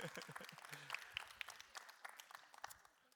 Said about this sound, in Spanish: Así es que darte un fuerte aplauso porque has hecho lo que te ha pedido el pastor. Una vez más, démosle un fuerte aplauso a Dios en esta tarde.